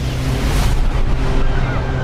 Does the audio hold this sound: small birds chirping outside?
no